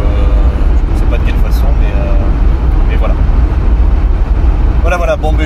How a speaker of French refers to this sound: Je suis désolé de, la qualité du son, à mon avis, parce qu'on entendre un petit peu la voiture.